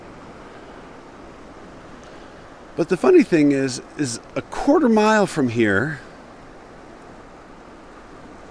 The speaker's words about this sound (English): It's quiet and peaceful as the desert ought to be, except for the sound of the water. But water doesn't disturb. The water is just that constant gurgle, rush, whoosh sound.